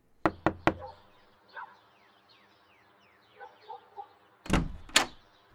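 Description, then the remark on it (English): Three quick, loud knocks rap on a door in the early morning as a sheriff arrives to make an arrest, followed by a quiet pause with faint birdsong, then two heavier thuds as the door is answered and handled. “High Sheriff George Corwin arrives in the early morning hours to arrest Mary. She answers the door in her bedclothes.”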